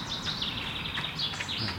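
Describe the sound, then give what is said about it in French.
A common chaffinch sings just overhead, with quick high trilling phrases and short descending swoops over a steady outdoor hiss, no voices present. “Donc ça, c'est un pinson.”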